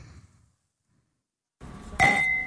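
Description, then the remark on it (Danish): Glasses clink together once in a toast, a bright chime that rings on for a moment after the strike, following a brief near-silence and a soft rustle of background noise. “Oj! Skål”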